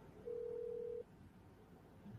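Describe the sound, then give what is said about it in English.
A single steady electronic ringback tone of an outgoing phone call on speakerphone sounds for under a second, then the line falls to quiet hiss while it waits unanswered. “Phone a friend here on Beard Oil Roulette. He's not going to answer.”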